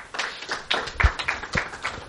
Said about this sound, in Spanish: Un aplauso para él.